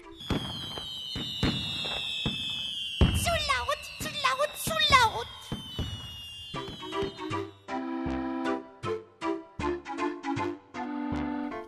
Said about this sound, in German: Oh, es ist einfach zu laut, zu laut, zu laut. Denn zu Silvester, da wird geknallt, geprasselt, gerumst und geballert.